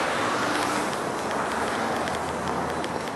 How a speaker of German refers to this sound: Sehr viele Leute unterwegs und immer noch sehr viel Verkehr, wie ihr hören könnt.